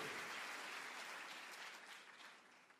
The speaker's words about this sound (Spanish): Si alguien cree que esta palabra le habla, que se escuche ese aplauso. Si ese aplauso es porque Dios sella con su espíritu lo que acabo de decir.